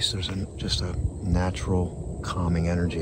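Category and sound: insect, crickets chirping outdoors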